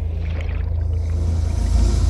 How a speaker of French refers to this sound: Oh, c'est pas vrai C'est encore un de ces bateaux de pêche de malheur.